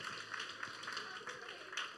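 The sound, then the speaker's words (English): A crowd applauds freshmen for completing their first full week of school, with steady, dense clapping that holds an even level for a couple of seconds, a soft hiss of many hands with a few sharper claps standing out. “Can we just give them a round of applause for completing their first full week of school?”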